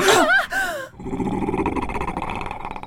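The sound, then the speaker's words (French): A gigantic grey wolf's snarl, lips curled back, rises loud, then settles into a steady, low, rumbling growl that continues without pause to the end. “Pétrifiés, les enfants voient un loup gris gigantesque sortir du portail les babines retroussées, la bête les sonde d'un regard sévère.”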